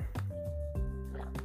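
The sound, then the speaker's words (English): Quiet sounds of someone drinking water: three soft wet gulps spaced evenly apart, with faint liquid squishes in between and no talking. “Sorry, fellas, I needed some fucking water.”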